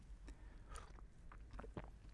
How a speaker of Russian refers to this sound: Я, пожалуй, сделаю глоток чая, чтобы спокойно начать обсуждать эту бесконечно дебатируемую тему.